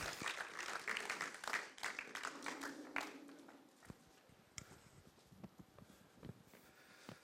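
A crowd applauds warmly, dense clapping for about three seconds before it thins out into scattered, fading claps in a room.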